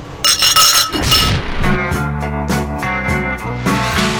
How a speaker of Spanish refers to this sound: Señores, seguimos en Harlem. En Harlem acá en Avellaneda, tomando una rica cerveza. Se da el brindis final